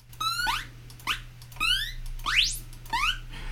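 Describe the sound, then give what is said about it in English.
A series of about six short synthesized retro game jump sounds, each a quick rising chirp with bright harmonics, spaced roughly half a second apart over a steady low hum. “Here's some jump noises.”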